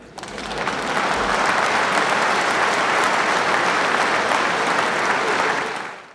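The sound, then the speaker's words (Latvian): A large audience applauds in a hall, a dense, steady roar of clapping that swells in quickly, holds at full strength for several seconds, then tapers off at the end. “patiesi mēs dzirdam, ik pa, ik pa minūtē ir, ir, ir zāles aplausi.”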